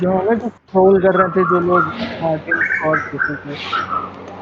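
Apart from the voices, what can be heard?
asian koel calling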